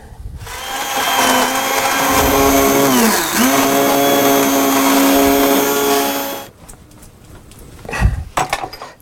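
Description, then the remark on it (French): A loud, steady whine of an immersion blender mixing an orange sauce runs for about six seconds, its pitch briefly dipping mid-way as it bogs down in the sauce, then it cuts off, followed by a few clattering knocks. “Un petit coup de mixeur et la sauce est prête.”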